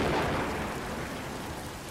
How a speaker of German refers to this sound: Erkälten Sie sich nicht im Regen draußen.